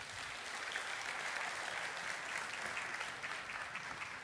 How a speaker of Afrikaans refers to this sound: Ag gee vir die orkes 'n lekker hande klap toe.